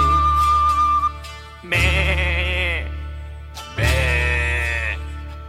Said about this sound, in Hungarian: Be, be, szomorú a birka, mert üres az irka, azért béget